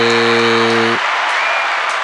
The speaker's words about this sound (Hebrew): תן כפיים, תהיה בן אדם, תן כפיים.